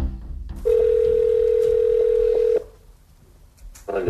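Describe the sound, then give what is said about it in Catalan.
A telephone dial tone as a new call is placed, a steady, loud mid-pitched hum that holds for about two seconds and then cuts off, leaving a quiet pause before a brief noise at the end. “Per tant, ara truquen a un altre nom, però aquesta vegada Navalny no diu qui és, sinó que es fa passar per una altra persona.”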